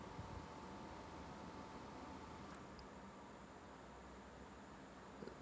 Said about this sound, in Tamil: இப்போ என் பேக்ரவுண்டை கேட்டாலே உங்களுக்கு தெரிஞ்சிருக்கும் சைடில் ஒரு ஏசி ஓடுது பட் அதை தாண்டி பார்த்தீங்கன்னா எவ்வளோ அமைதியாக இருக்குது பார்த்தீங்களா